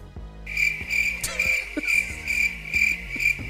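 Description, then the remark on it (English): Crickets chirp in a steady, high-pitched trill that starts after a brief moment and continues without a break, over a soft, low background hum. “Those uh, international crickets hit different, though.”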